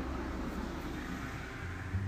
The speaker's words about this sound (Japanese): あほんと車多いな今日なんかあるのかな催事事が